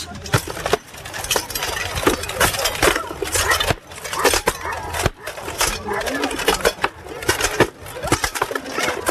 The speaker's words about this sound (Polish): Drodzy Państwo, przed Państwem wyjątkowa grupa, grupa rekonstrukcji historycznych Fortis i panowie rycerze, tak jak Państwo słyszeli, z XIV wieku. Zobaczymy, czy ten szczęk oręża będzie słychać.